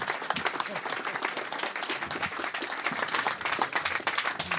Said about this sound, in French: on peut l'applaudir, il a pris des risques incroyables. Il est allé jusque sur la scène où il fait à peu près 40 degrés.